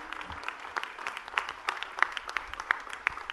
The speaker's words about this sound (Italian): Posso applaudire anch'io? E come, ragazzi? Complimenti al sindaco di Ventimiglia, Flavio Di Muro, ieri dal palco della festa del grande raduno della Lega a Pontida.